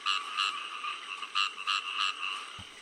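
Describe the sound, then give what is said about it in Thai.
A frog croaks repeatedly in a quick, fairly steady series of about half a dozen raspy pulses, heard clearly on its own with no talking. “อันดับสองก็คือปาดกบเขียดคางคกขนาดใหญ่ ก็สามารถกินแมงป่องเป็นอาหารได้นะครับ”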